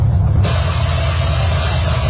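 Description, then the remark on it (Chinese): A vehicle drives onward along a snowy road as the temperature keeps dropping and the snow on the road grows thicker: a loud, steady low engine rumble with a continuous hiss of tire and road noise that swells after a moment and holds evenly, with no voices. “随着车辆继续前行，气温越来越低，路上的积雪也渐渐厚了起来。”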